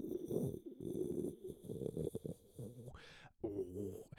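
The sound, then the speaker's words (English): A voice imitates a deep, steady ocean rumble with a low, gravelly hum for about three seconds, followed by a breathy exhale and a short voiced sound. “it's not like um there, it doesn't sound like waves it's just this general low frequency that's like”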